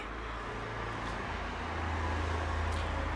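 Three cars pass by on a road, their engines and tyres forming a steady, rumbling roar that swells slightly toward the end, with no voices.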